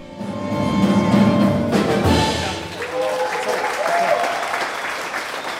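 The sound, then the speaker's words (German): An enthusiastic audience at a jazz concert claps steadily in a dense, sustained wash of applause for several seconds, fairly loud, with a few scattered cheers and voices mixed in. “Begeisterte Zuschauer beim Jazztube.”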